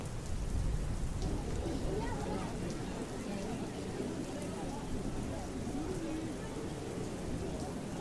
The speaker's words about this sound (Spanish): En un día normal de escuela, en donde todo marchaba como siempre, de no ser por la pequeña tormenta que se observaba a través de la ventanilla, este espectáculo lo observaba y escuchaba